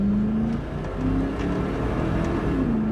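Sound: car engine revving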